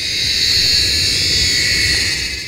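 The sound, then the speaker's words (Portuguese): A cicada drones with a harsh, chainsaw-like buzz, loud and unbroken for the whole stretch, a high grinding hiss that holds steady without pauses or any voices. “Já essa outra faz um barulho semelhante a uma serra elétrica.”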